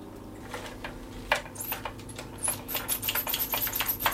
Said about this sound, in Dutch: Het geluid wat je hoort is dus het eh, inspoelen van het filmpje. En dat spiraaltje.